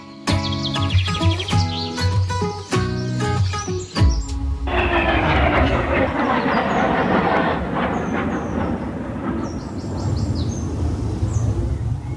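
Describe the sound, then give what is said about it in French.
A loud airplane roars over a garden with ponds, its engine whine steady at first, then becoming a broad rumbling rush as it passes. Birds chirp and tweet faintly through the noise. “On entend plus souvent les oiseaux que les avions, non Oui, on entend plus souvent les, oiseaux que les avions, effectivement.”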